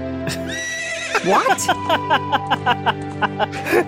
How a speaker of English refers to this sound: That horse. Look at that horse.